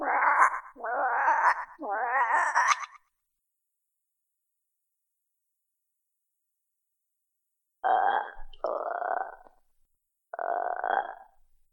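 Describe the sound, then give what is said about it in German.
A voice imitates croaking frogs: three rough, throaty croaks in quick succession, a few seconds of silence, then three more croaks, fairly loud. “Ihr hört nur das Gröten und Quaken von Fröschen.”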